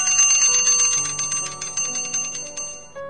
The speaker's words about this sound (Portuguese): O barulho da sineta anunciando o horário do almoço despertou-me de minhas lembranças e dirigi-me ao refeitório.